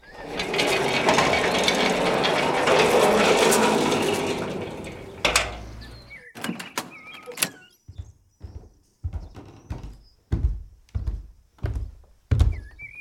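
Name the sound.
door being opened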